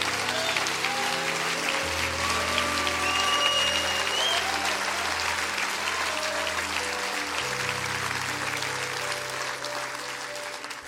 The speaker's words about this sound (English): Stand to your feet all over the house. Come on, stand up all over the house. Why don't we give the Lord a great, great hand clap of appreciation?